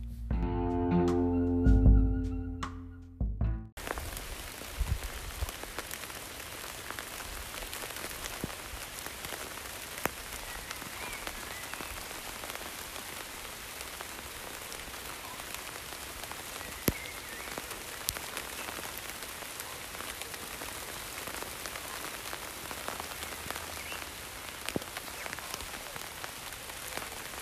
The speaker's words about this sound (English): So I thought I'd record the rain for you. So it's the rain coming through the canopy of the tree tops.